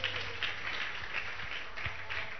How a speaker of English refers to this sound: Receive that prophecy of blessing. Clap your two hands together for the Lord.